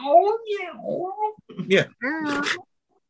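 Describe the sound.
Kenny Everett, the voice of Charlie the Cat from Charlie Says, imitates a cat with a few drawn-out, wavering meows in quick succession, loud, with no other sounds around them.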